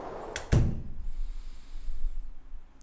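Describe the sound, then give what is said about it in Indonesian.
A house door swings shut with a single solid thud as a person goes inside, followed by a faint rattle and low rumble as it settles, with no voices. “Aku merasa ketakutan dan segera aku masuk dan menutup pintu.”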